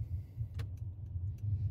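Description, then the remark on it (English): A steady low engine rumble from inside a car moving in traffic on the way home from the store, with a few faint clicks and rattles over the hum. No one speaks. “and got caught in this traffic going back home.”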